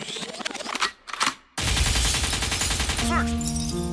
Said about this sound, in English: Lakewood means rewind, a gunshot means far, far, forward.